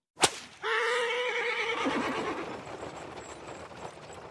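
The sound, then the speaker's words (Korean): A coachman's single sharp whip crack snaps out, then a horse gives a loud, drawn-out whinny as the rumble of a horse-drawn carriage racing at high speed through foggy streets carries on and slowly fades, with no voices. “우리가 모두 자리에 앉자마자 마부는 힘차게 채찍을 휘둘렀고 마차는 맹렬한 속도로 안개 낀 거리를 질주해 나갔다.”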